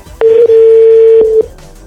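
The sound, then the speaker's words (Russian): A telephone line tone as a call is placed: a steady, mid-pitched electronic beep holds for just over a second, loud and alone, with small clicks at its start and end and no one talking. “Звоню, ты понимаешь? Че же я в банк звоню?”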